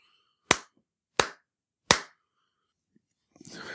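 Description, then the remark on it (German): Three loud, sharp hand claps, done as a clap test of the room's echo, evenly spaced, each trailing off in a short ringing decay, followed by silence and then a burst of soft rustling noise. “So, jetzt bin ich fertig damit und äh, beginne direkt mal mit so einer Klatschprobe.”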